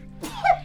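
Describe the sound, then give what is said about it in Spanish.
A single sneeze, with a sharp breathy burst followed by a short voiced cry, heard on its own with no talking. “Salud.”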